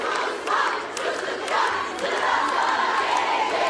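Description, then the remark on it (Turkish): A crowd of students in Çorum shouting and chanting together, protesting after students were trapped in a Credit and Dormitories Institution (KYK) elevator: a continuous loud roar of many voices with rising bursts, some sharp clattering knocks punctuating the din. “Çorum'da ise öğrenciler yine Kredi ve Yurtlar Kurumu'nun asansöründe mahsur kalınca yaşananları protesto etti.”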